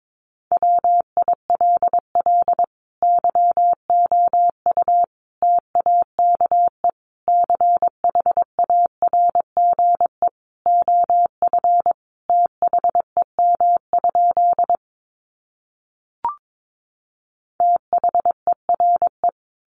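A steady, mid-pitched Morse code tone keys out rapid dots and dashes at about 22 words per minute, sending practice sentences built from the 900 most common words, in bursts separated by short gaps, with a brief pause near the end before sending resumes.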